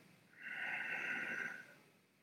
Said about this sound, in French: Idéalement, tu inspires par le nez.